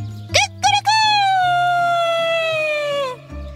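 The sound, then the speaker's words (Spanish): A rooster crows once, loud: two quick clipped notes followed by a long, strained, slightly falling cry that holds for a couple of seconds before cutting off. “Me vine a vivir al bosque porque me gusta tanto cantar que lo hacía todo el día.”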